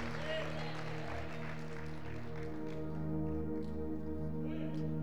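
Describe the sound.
An audience at a church service claps steadily for the Lord and Jesus in a dense, continuous wash of applause, with sustained low musical tones and murmuring voices running underneath throughout.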